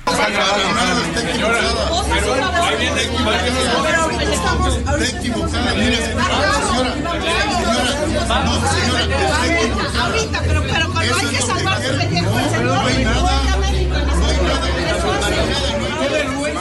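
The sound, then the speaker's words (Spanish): A loud, dense crowd of many voices at a protest march shouting at PRI national leader Alejandro Moreno Cárdenas, chattering over one another without pause, an agitated hubbub with a low rumble running underneath throughout. “Bueno, pues ahí está, le están gritando y él se trata de defender, se levanta y, se hace de palabras con la gente.”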